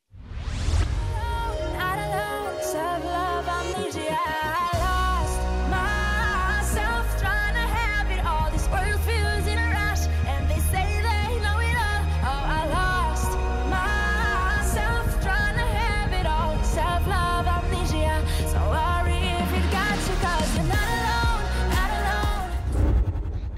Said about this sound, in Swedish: Jag, hon sjunger ju jättesnyggt med de här drillarna. Det är lite mer åt klubb, mörk klubbpop kanske, sån här som man ofta hör.